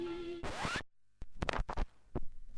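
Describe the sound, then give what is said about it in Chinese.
A needle on a vinyl record borrowed from a friend scratches and hisses over a steady hum with a rising whine, falls silent briefly, then gives a run of irregular, sharp crackles and pops. No one speaks. “我知道你很喜欢音乐啊，今天啊还特别和朋友借了这张黑胶唱片呢。”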